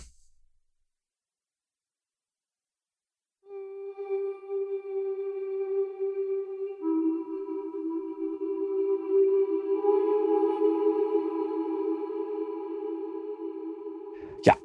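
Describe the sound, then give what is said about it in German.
After a moment of silence, an instrument's sustained notes, played through a Black Hole reverb with the mix at 100, bloom into a vast, washy reverb, a second pitch layering in as the sound swells and lingers for about ten seconds, ending in a sharp click. “Wunderbarer Hall.”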